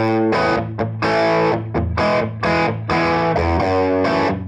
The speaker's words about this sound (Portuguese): Mas foi exatamente isso que chamou a atenção de alguns guitarristas e diamantes de música, que adoraram esses sons inusitados e timbres diferentes. Essa descoberta foi então chamada de distorção.